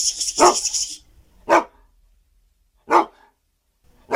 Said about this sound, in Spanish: Perro, perrito.